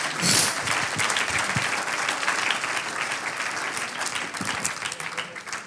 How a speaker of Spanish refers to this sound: Levante sus manos. Eso. Ahora dale un aplauso al Señor.